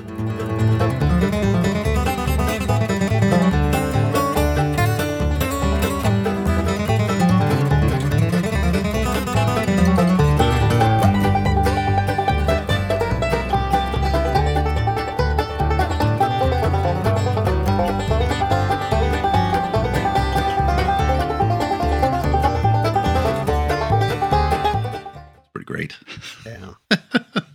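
Fast-picked bluegrass banjo music rolls along in a steady, busy stream of bright plucked notes over a full band, loud throughout, then cuts off abruptly near the end.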